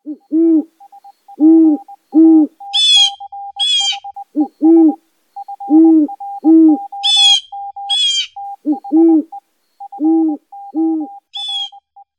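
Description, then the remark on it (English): A burrowing owl gives soft, low two-note hoots in repeated pairs, clear, with bursts of high, raspy chattering calls and a faint rapid ticking between them. No one speaks. “So let's start with burrowing owls.”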